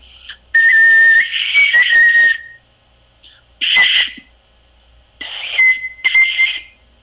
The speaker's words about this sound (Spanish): entonces, estos instrumentitos eran de los caranquis. Y con este instrumento, bueno, vamos a la música, una vez que ya le hemos dado el agüita, va a sonar mejor. Y por ejemplo, podemos sacar algo así.